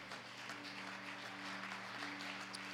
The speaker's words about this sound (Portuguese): em nome do Senhor Jesus Cristo, aplauda o Senhor nesse lugar se você crê nisso.